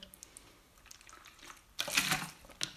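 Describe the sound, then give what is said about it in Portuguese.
Water sloshes and splashes inside a large 1.5-litre plastic bottle of water in a short burst, with quieter sloshing before it and a final brief slosh at the end. “Uh, malta, estou aqui com uma garrafona de um litro e meio de água.”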